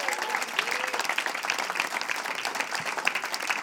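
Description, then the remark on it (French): An audience at a live stage show applauds steadily, a dense wash of many hands clapping at an even level throughout, with a few faint voice fragments mixed in. “Alors, ben, merci, merci, on applaudit.”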